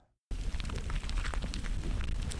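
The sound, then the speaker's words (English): A dozen black ground beetles, each about fingernail-sized and taken from a fistful of Oregon soil, scamper inside a plastic bag, making a busy, continuous crackle of tiny scratches and rustles. It starts abruptly after a brief silence and stays steady throughout. “This is the sound of a dozen black beetles, each the size of my fingernail, scampering about in a plastic baggie.”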